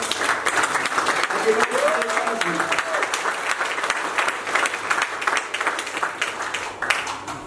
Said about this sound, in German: Ein fetter Applaus.